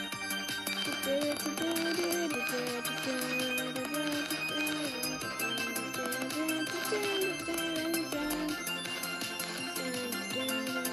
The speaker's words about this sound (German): Jetzt muss es gleich klingeln.